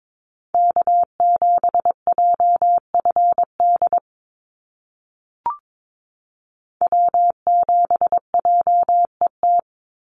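North American SOTA activator callsigns keyed in Morse code at a brisk 22 words per minute on a single steady mid-pitched tone, two rapid bursts of dots and dashes separated by a pause with a brief click.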